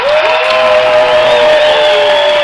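A loud, dense wash of audience applause mixed with cheering welcoming two young women from Japan, steady for the whole stretch, with a sustained high-pitched whoop or tone riding over the crowd noise. No one speaks.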